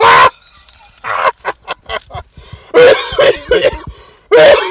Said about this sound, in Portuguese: Opa, desculpem agora a tosse, isto agora é de Covid. Isto agora também é de Covid.